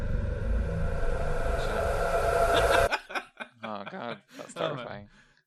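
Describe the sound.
A loud, eerie ghostly vocal burst swells as a dense, rumbling, breathy drone for about three seconds, then cuts off abruptly, and a person starts speaking.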